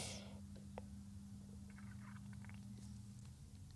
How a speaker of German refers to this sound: Habt ihr das gehört? Das war mein Magen. Der gluckert.